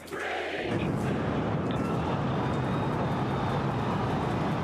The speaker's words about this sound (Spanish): Los 33 motores del propulsor se han encendido y entre el humo y el polvo ha salido hacia el cielo el cohete más potente de la historia, con 120 metros de altura.